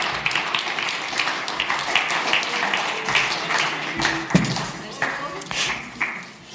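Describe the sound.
Sustained audience applause as two people are called up onto a stage: a dense crackle of many hands clapping at steady loudness for several seconds, with scattered voices and sharper claps popping out of the crowd noise.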